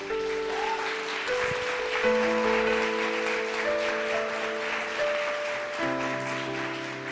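A crowd at a Fuego Vivo gathering claps steadily throughout, a dense, even wash of applause layered over sustained keyboard chords that shift a few times.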